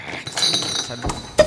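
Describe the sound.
Glasses clink together in a toast, a bright ringing chime followed by a couple of sharper clinks near the end, with faint voices murmuring in the background.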